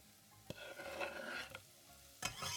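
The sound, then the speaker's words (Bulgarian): Chopped vegetables, including a freshly washed and chopped vegetable just added, sizzle steadily in a pot while a utensil stirs them, knocking sharply against the pot three times. No one speaks. “И слагам и него в тенджерата.”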